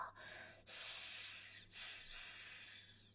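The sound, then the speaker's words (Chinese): A monster's hiss, voiced by a person: a loud, bright, breathy hiss sustained for about a second, then two more drawn-out hisses with a brief break, and no talking. The monster hisses as it reaches out its tentacles to grab Emma. “他嘶嘶叫着，伸出触手去抓艾玛。”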